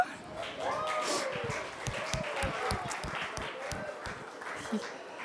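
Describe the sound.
An audience applauds, with dense, steady clapping that holds for about five seconds at a fairly even level, while a few voices call out and cheer over the clapping.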